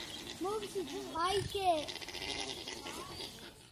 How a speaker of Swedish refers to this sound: Nej, det är alpack Alpacker, som låter så här, lite, lite kurrande. Så här.